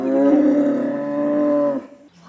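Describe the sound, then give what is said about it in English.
A hornless, gene-edited cow lets out one long, loud moo, a steady, drawn-out bellow lasting nearly two seconds before it cuts off, with no talking. “is talking to her hornless cows, and well, they're talking back”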